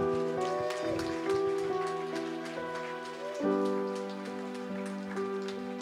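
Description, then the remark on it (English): An audience gives a clap offering to God at a church service, a steady dense crackling wash of many hands clapping over sustained keyboard or organ chords that shift once partway through. No one speaks. “I'm not, that's not an applause for me, that's an applause for Jesus”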